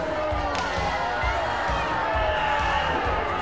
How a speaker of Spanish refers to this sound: Jesse Ventura y Diva Salvaje celebran su triunfo en medio de vitoreos y abucheos